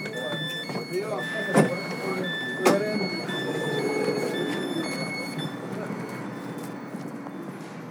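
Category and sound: vehicle, train ride ambience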